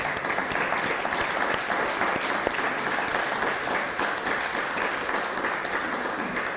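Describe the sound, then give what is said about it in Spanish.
Sustained audience applause for Costa Rica, a dense wash of many hands clapping at a steady, fairly loud level throughout, with no voices standing out above it. “Sí, fuerte aplauso a Costa Rica, por favor.”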